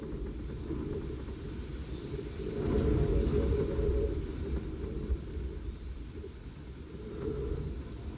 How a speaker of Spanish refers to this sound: ¿Qué, es esto? Un auto que arranca.